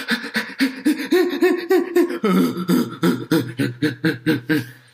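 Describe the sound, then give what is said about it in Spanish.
A person imitates the quick, shallow chest panting of someone agitated: a steady run of about a dozen short, voiced huffs, fairly loud, with an almost laugh-like rhythm and no words. “La respiración se acorta y se pone en el pecho rápida y entrecortada.”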